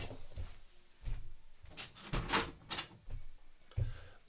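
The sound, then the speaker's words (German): Windows being shut: several dull thumps and a short burst of rattling, clicking handle and frame noise in the middle, moderately loud, with no one talking. “ich muss mal ganz kurz hier die Fenster zumachen, weil irgendjemand spielt Musik draußen.”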